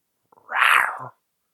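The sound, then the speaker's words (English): A person imitates a cat's meow: one drawn-out, whiny, rising-and-falling cry lasting under a second, loud, with no talking around it. “I don't know why I had to make a cat noise.”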